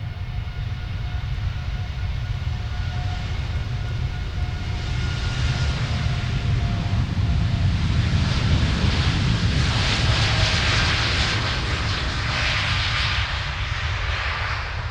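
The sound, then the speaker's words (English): An Air Canada passenger jet, Flight 829 to Toronto, roars down the runway at Copenhagen airport on takeoff, heard from the Flyvergrillen restaurant about 100 meters away; a loud, steady rumble with a rising hiss of engine noise that swells toward the middle and stays strong throughout. “That's the sound of Air Canada Flight 829 departing for Toronto eight minutes behind schedule.”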